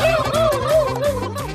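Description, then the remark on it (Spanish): A loud turkey gobble: a rapid, rattling series of warbling notes repeated in quick succession over about a second and a half, with no talking. “¡Llegó el pavo!”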